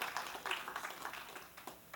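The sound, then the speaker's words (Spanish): An audience applauding for the Lord during a sermon, with dense, overlapping hand claps forming a steady wash of sound that holds for a couple of seconds, fairly soft. “Den un aplauso al Señor.”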